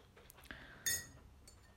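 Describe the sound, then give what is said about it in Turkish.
A spoon clinks against the inside of a cup as hot chocolate is stirred, with one bright ringing clink standing out among softer taps and scrapes, over a faint steady background hiss of falling rain. “Karıştırayım.”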